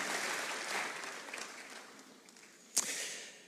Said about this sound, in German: Wir sollten Jesus dafür mal einen Applaus geben und wir lieben sie.